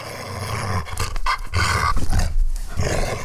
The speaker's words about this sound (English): It sounds like the dogs are getting really fucking pumped about this.